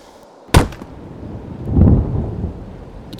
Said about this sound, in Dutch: geluid van de hamer op de stok is nu anders. Doffer dan het de hele dag al klinkt.